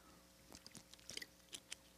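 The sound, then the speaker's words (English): Quiet mouth sounds of someone taking a big gulp of water: a few soft wet clicks and swallowing gulps spread over a couple of seconds, with no talking. “I mean, you want to talk about a big gulp, which I'm about to take one of water.”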